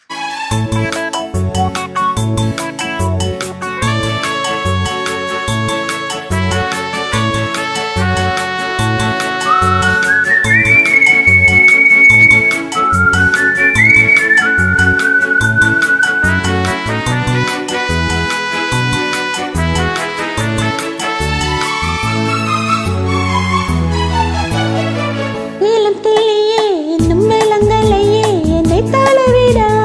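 A song plays loud and continuous, with a steady rhythmic beat and layered instruments under a sliding, whistle-like lead melody; no singing or talking is heard.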